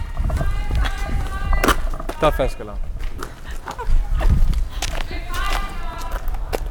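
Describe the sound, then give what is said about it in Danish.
Quick, running footsteps slap along a hard hospital corridor floor in a steady hurried rhythm as people run over to Ø1 because of an alarm, while a person talks over them in short bursts. “Vi løber over til Ø1.”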